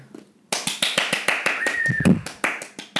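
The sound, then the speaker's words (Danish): A burst of hand clapping for a Best Actor win at the 2016 Oscars ceremony starts abruptly after a brief quiet moment, a quick, steady run of sharp claps with a brief tonal whistle-like sound partway through. “Klap mig, klap, klap mig lige i gang.”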